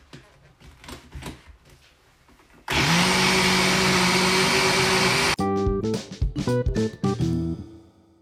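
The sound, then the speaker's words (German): A blender mixing a banana milkshake with cinnamon switches on with a loud, steady whirring roar and a high motor whine, runs for under three seconds, then cuts off abruptly amid softer clattering sounds. “Und jetzt wird weiter gemixt.”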